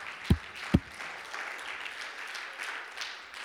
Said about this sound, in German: Komm, lasst uns nochmal einen Applaus geben.